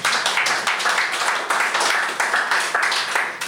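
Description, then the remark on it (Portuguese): A crowd applauding steadily, with many overlapping hand claps forming a dense, continuous patter at a fairly loud, even level throughout, and no voices standing out. “Ah, da Palma, sim, esquecemos das palmas.”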